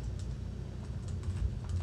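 Soft, rapid clicking of someone typing on a computer keyboard, a quiet, uneven run of keystrokes over a low background hum, with no one speaking.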